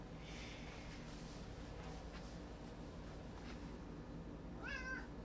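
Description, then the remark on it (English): A cat purrs steadily and loudly, a continuous low rumbling throughout, with a short meow rising near the end. “Oh my god, just purring up a storm.”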